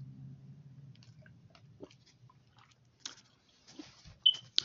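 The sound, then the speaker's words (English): Quiet mouth sounds of someone sipping water: soft wet slurps, a swallow or two and small lip clicks spread over a few seconds, with no talking. “Let me get some water.”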